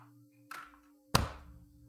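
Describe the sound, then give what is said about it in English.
Two sharp hand claps made to sync audio, a softer one followed about half a second later by a louder, crisper one, over a faint steady electrical hum with no talking. “Can you do it like a clap?”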